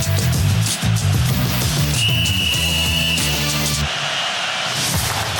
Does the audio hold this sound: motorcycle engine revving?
no